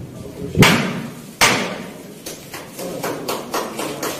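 Two loud, heavy smashing blows ring out, followed by a quicker series of lighter knocks and bangs as Grzegorz Braun strikes and breaks a microphone and loudspeaker, blocking a lecture on the Holocaust.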